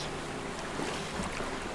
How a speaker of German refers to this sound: Die Philosophin rudert schnell, so schnell, dass.